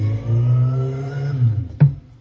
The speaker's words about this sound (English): That is no my, my, the window is open behind me, and I guess one of my neighbors is is out revving his little vehicle. Unheard of!